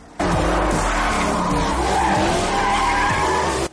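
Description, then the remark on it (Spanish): Two race cars, a black Porsche and a red Ferrari, go full throttle on a highway and skid through a 180-degree turn at the end of the course, tires squealing in long, wavering high screeches over a steady low engine roar, loud and continuous for several seconds without any talking. “Los dos pisan a fondo, llegan al final del trazado, a la vez derrapan 180 grados”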